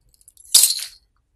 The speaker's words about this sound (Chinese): 男生一甩钥匙